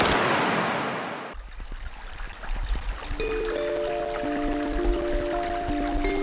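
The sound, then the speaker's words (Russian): Rushing river water washes in loudly at first, then settles into a softer, distant trickle with scattered drips, while sustained musical tones rise over it partway through. “Мы слышим, как издалека течет волшебная река.”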